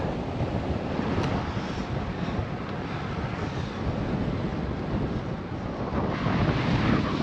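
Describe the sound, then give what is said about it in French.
A strong headwind buffets the microphone while cycling on roads in Denmark, a steady, loud low-frequency roar, rumbling and gusting without pause throughout, with no voices. “Le vent dans la gueule, ça suffit pour les collines invisibles.”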